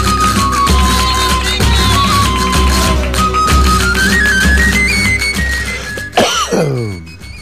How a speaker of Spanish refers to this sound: Bueno, estamos de vuelta y, tosiendo por el tiempo.